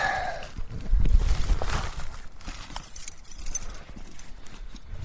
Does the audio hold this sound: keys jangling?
yes